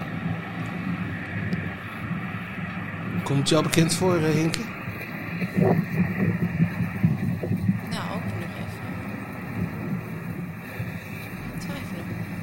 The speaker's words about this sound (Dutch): Nou, dit is dus de Waldorpstraat. oh, het verkeer in de Waldorpstraat. Ja, ik, ik, Ik, vond een filmpje op YouTube van, van, ja, precies. Van iemand die op de stoep loopt en die eh, dus filmt wat er gebeurt in de Waldorpstraat.